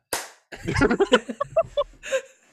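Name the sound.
hand clap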